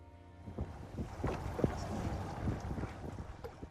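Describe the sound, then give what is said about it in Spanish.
A small motorboat engine drones steadily, its low hum mixed with splashing water and gusty wind buffeting the microphone, as the boat heads out to fish for cod, passing floating icebergs in Disko Bay, western Greenland. “sale a pescar bacalao cada mañana en su lancha a motor.”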